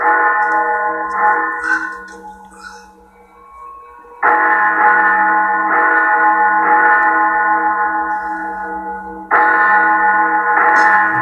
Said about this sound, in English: Bells are so loud inside the house. Coming from inside the house, it's so loud he can't stand it. That's why I'm talking as loud as I am.